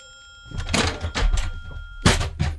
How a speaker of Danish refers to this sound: du væltede en stol ind i studiet